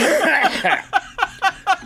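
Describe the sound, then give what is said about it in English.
A person coughs: a dense, rough burst of sound first, then four short, evenly spaced hacking coughs, each sharp and separate, with no talking in between. “I'm going to be coughing for the next three years.”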